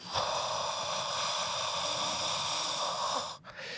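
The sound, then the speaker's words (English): A voice imitates a white-noise sleep machine, the sound the speaker prefers to hear for sleep, with a steady, breathy hiss, loud for about three seconds, then briefly breaks off before starting again. “Can you simulate and, for our mm-hmm. listeners the sound yes. th- that you prefer to hear for sleep?”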